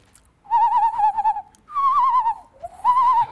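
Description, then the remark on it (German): A voice imitates the magic spell sound effect heard in a film's third installment whenever anyone casts a spell: three warbling, wavering tones that slide and shimmer, fairly loud, separated by short pauses, with no speech. “Und dieses Geräusch, wenn, er, wenn egal wer zaubert, ist im dritten Teil, macht das immer so.”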